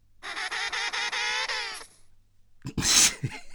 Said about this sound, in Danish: Hvad er det for en lyd? det, er lyden, det er lyden af en pingvin, der ruller ned ad en bakke.